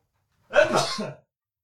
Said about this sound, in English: Oh, I'm going to sneeze. Hang on.